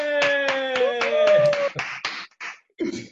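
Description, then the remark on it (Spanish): Loud, rhythmic clapping at the opening of the third edition of the show Animándonos a lo desconocido, in a quick steady beat, about four claps a second, with sustained voices or tones over the first half, then breaking into a few scattered claps. “¡Qué aplauso intenso!”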